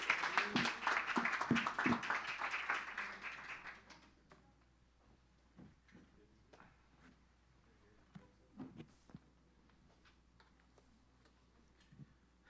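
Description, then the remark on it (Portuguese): An audience at a church service bursts into dense, loud applause for the Lord that fades out after a few seconds, leaving a quiet stretch broken only by scattered soft taps and clicks. “Vamos dar uma salva de palmas ao Senhor, amém?”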